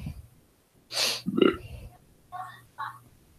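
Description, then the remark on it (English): A short burp with a breathy onset and a low, gurgling tone, followed by a couple of brief voiced murmurs. “You need you need the you need the burp the the momentary burp.”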